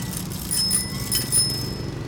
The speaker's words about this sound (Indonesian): Kalau senang disuarain dong itu bel sepedanya.